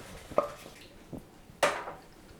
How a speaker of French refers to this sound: Et là, on a droit à quoi à Un peu de pain pour nettoyer la casserole.